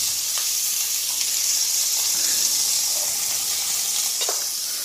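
Steady sizzling of meat browning in hot oil in a hot pan, a dense crackling hiss that holds evenly throughout with occasional sharper pops and faint stirring scrapes, and no one speaking.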